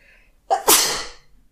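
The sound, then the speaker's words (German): A single sharp sneeze bursts out, a short in-breath followed by a loud explosive release that fades quickly into quiet. “Gesundheit, ne? Richtig mal. Gesundheit.”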